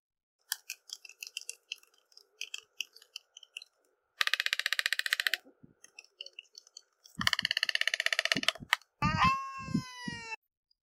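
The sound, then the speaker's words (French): Waved albatrosses of the Galapagos bill-fencing in courtship: scattered dry clacks give way to rapid, rattling bursts of bill-clapping, fairly loud, ending with a drawn-out, wavering moan-like call. “Et en gros, ils se font des courbettes, ils penchent la tête de droite à gauche comme un chat curieux, puis ils font des espèces de petits combats d'escrime avec leur bec. Le tout sonne comme ça chez les albatros des Galapagos.”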